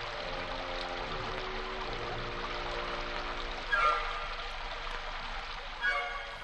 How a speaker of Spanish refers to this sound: Afuera la lluvia caía sin cesar.